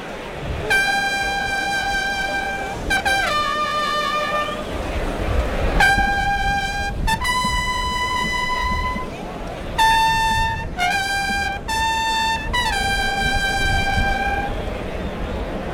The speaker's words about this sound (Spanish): Atención, clarinazo. Vámonos, Vamos. mucha suerte. Clarinazo, suerte para todos.